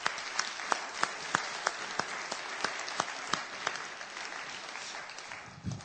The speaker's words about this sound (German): Also nochmal einen großen Applaus an all die, die hier aufgeräumt haben.